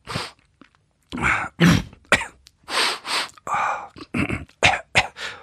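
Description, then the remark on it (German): An older man makes 'Daddy Noises' as in Family Guy: a string of gruff grunts, coughs and throat-clearing noises in short, irregular bursts with brief pauses between them, and no actual words are spoken. “Das heißt, dass man als Mann, äh, als älterer Mann gerne mal irgendwo sitzt und einfach nur so Geräusche von sich gibt, so.”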